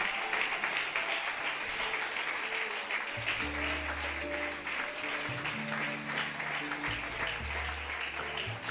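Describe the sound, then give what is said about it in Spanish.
Sustained audience applause for God at a church service, a dense steady wash of clapping, with a low organ or keyboard playing held chords underneath, joining partway through. “Dele fuerte ese aplauso a mi Dios en esta hora.”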